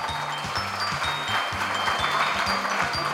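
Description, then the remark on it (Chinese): Steady audience applause for the speaker's parents at a school principals' handover ceremony, a dense crackle of many hands clapping continuously throughout, with a low stepping musical tone sounding underneath and no one speaking. “大家给我爸爸妈妈这么多的掌声，嗯。”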